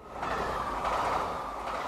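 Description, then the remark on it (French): A steady, loud rumble of a TGV high-speed train running on rails from Nantes to Paris, with a broad rushing roar and low wheel hum, continuous with no voices. “De Nantes, je prends le TGV pour Paris”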